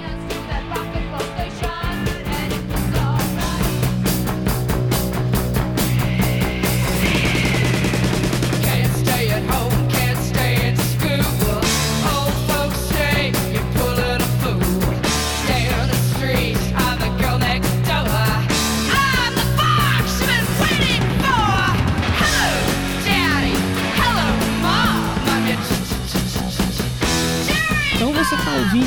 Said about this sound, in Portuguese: a gente tá ouvindo um trechinho, né? Um dos grandes hinos do rock and roll, na minha opinião, né?